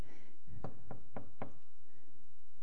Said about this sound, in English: He's the one standing at the door knocking.